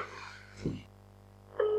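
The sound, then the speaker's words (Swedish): Telephone dialing tones as a phone call is placed: some muffled handling noise and a low thump, then a clear, steady electronic tone starts near the end and holds. “Uh, nu ringer vi Ivan här också.”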